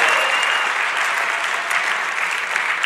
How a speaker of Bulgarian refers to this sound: О, ако искаш да му дадеш слава, дай му слава наистина. Ръкопляскай като че наистина му даваш слава.